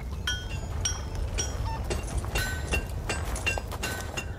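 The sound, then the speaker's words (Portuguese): An elderly blacksmith in a forge hammers horseshoes, about ten ringing, bright clanks struck at a steady, slightly uneven pace over a constant low rumble. The metallic ring lingers briefly after each blow. “Ele possui a camisa com as mangas arregaçadas e um avental na frente e ele está martelando trabalhando.”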